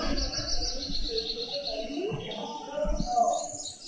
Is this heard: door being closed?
no